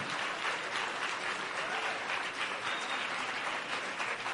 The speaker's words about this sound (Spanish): Mínimo por eso ya estaremos dando una fuerte ofrenda de palmas al que vive.